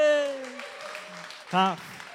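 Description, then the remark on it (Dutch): Applause from an audience welcoming a guest speaker at Connect Kerk, a church, rises into a steady, dense patter of clapping at moderate volume, with a brief voice at the start and a short vocal sound partway through. “Zullen we even kort applaus geven?”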